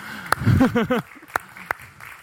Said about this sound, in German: Mal einen Applaus